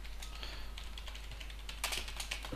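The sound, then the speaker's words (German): Rapid, irregular clicking of keys on a computer keyboard, a steady stream of light taps with a brief louder flurry near the end, no voices. “So, der hört man uns auch mal tippen.”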